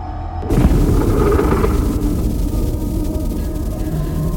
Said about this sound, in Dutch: En ehm, het is uh, eh, aardedonker. En ineens boven een stad, Hawija, verschijnt er een bol van licht een geconcentreerde explosie.